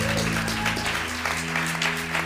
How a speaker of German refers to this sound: Lass uns dieser Person einen Applaus geben für einen Entscheid.